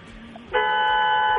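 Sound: car horn honking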